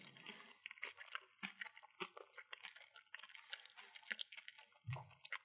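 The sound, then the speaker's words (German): A person chews food, keeping it in the mouth without swallowing: wet, crackly mouth sounds and small clicks in an irregular, continuous rhythm, quiet but intimate, with a soft low thump near the end and no talking. “für dich wird es jetzt wahrscheinlich besonders schlimm, weil du mich kauen hörst, aber.”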